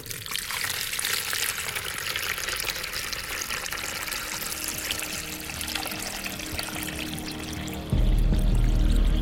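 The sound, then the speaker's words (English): Liquid is poured steadily into a container for several seconds in a pouring challenge, a continuous splashing hiss, then the sound shifts abruptly to a deeper, heavier rumble near the end. “in the pouring position. Just shout oh. stop when you think we're there.”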